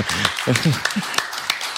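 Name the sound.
applause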